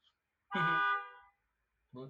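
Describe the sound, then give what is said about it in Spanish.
A sustained car horn honk from cars in the street below, lasting under a second, followed by a short pause before another honk begins, fairly prominent. “Están pitando por debajo los coches.”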